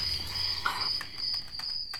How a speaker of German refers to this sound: Sag mal, kannst du das Zirpe nicht abstellen? Wenn man den Knopf zum Ausschalten zeigst?